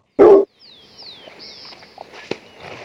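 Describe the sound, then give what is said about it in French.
A countryside nature ambience sound effect: a single loud dog bark, then small birds chirping and whistling over a quiet outdoor background, with a few faint knocks. “mets-nous une ambiance de campagne, là. Tu sais, euh, la nature, les petits oiseaux, tout ça.”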